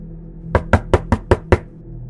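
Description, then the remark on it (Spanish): Six rapid, heavy knocks pound violently on a door in a tight, even burst, loud, as if trying to break the door down, with a low hum in the background and no voices. “El golpeteo volvió ahora de forma violenta, como si aquello quisiera tirar la puerta o fuera a hacerlo en cualquier momento.”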